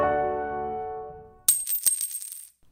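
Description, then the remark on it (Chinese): A sustained ringing tone fades out, then gold coins hit the floor with a burst of bright metallic clinks and jingles, several quick impacts scattering over about a second. “哦，这是金币、钱币掉在地上的声音。”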